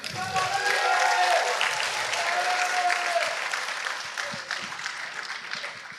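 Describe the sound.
An audience bursts into sustained applause, a dense wash of many hands clapping that holds steady for several seconds before gradually thinning, with faint voices and cheers mixed in.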